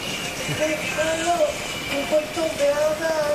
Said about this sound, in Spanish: Por suerte suena más la lluvia